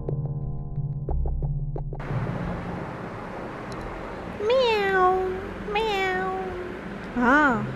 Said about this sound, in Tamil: பூனை தாங்க நம்ம இன்றைக்கி பார்க்க போகிற ஒரு விலங்கு